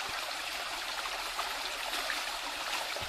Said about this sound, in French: Chers auditeurs, le conseil municipal a remplacé, pour des raisons de sécurité nationale, le segment d'actualité suivant par le son d'un ruisseau qui glougloute, suivi par le bruit d'un mixeur en marche.